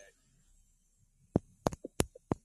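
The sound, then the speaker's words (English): Several sharp thumps from a finger tapping directly on the little microphone hole of a phone, coming in an irregular cluster of about six or seven knocks after a quiet stretch with faint hum. “tap like where the mic is on your headset, and then tap it on your phone.”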